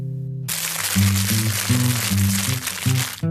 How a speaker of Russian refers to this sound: А ведь пакет шуршит так красиво. Почему до сих пор никто не создал музыкальную группу с песнями под шорох пакета?